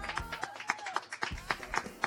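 Applause in a steady, rhythmic beat, with sharp claps coming about four times a second throughout, and faint voices calling out underneath.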